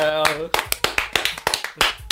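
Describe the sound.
A short burst of applause: sharp, bright hand claps in a quick, slightly uneven rhythm, about eight of them, following a brief voice at the start.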